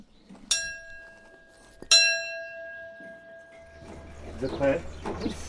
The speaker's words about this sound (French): On va faire un coup de cloche pour les synchros.